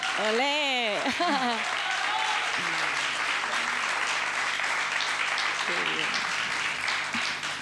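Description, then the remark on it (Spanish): An audience bursts into sustained, steady applause that fills the whole clip, with a few voices calling out and cheering over the clapping at the start, applauding a Goya award winner and a Goya nominee. “Ese aplauso también por eso habrá que hacerlo, ¿no?”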